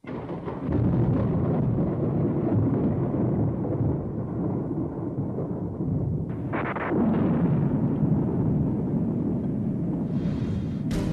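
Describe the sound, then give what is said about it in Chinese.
Loud, sustained thunder rumbles throughout, a deep continuous roar with a sharper crackling burst midway and another near the end, no voices present. “小朋友，电闪雷鸣是夏天常见的天气现象。”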